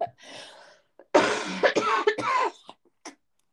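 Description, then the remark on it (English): A person coughs hard several times in a quick, loud burst after a softer breathy lead-in, with a couple of small throat sounds trailing off. “I'm getting heated on up coughing.”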